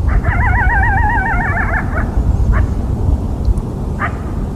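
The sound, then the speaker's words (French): A coyote gives a long, wavering, warbling howl, followed by two short, sharp yips, over steady low wind or rumble. No one speaks. “Alors voilà le cri d'un coyote, si vous vous demandiez”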